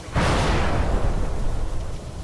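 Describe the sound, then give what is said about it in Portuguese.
A heavy whip made of many flies, swung by an arm, slams into the ground with a sudden loud, booming impact, followed by a sustained rumbling, crackling roar that slowly fades. No voices. “E vocês ouvem um quando do nada um chicote de moscas, vocês veem tipo ele balançar o braço e várias moscas se colocam numa posição e ele bate no chão.”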